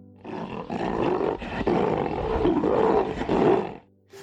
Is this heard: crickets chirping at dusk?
no